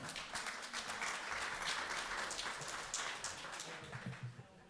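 Steady applause from an audience as Sašo Hribar is invited back on stage, a dense patter of many hands clapping at moderate volume for a few seconds, fairly subdued and even, then thinning toward the end.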